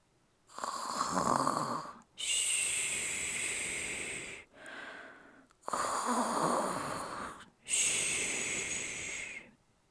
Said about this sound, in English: While Goldilocks was snoring upstairs, the bears came home.